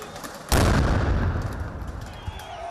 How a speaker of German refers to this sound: Ohne Vorwarnung darf geschossen werden. Es sind nicht nur Warnschüsse.